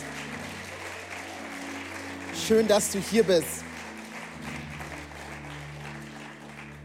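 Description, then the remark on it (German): A church audience applauds steadily during a service to welcome first-time visitors, a dense wash of many hands clapping that continues throughout, while a man speaks briefly over it in the middle. “Hey, dann ist dieser herzliche Applaus für dich.”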